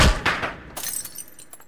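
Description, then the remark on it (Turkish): A bowl of honey hung on a branch is kicked and shatters into pieces: a sharp initial crash followed by a scatter of bright, tinkling fragments settling over a second or so, fairly loud, with no voices. “Yanındaki dala astığı çanağı paramparça olmuştur rüyasındaki tekmeyle.”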